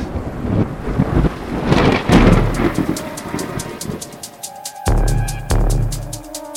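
A loud thunderclap booms and rolls into a deep, throbbing rumble, with further heavy rumbling surges near the end and a steady patter like rain throughout. No one speaks.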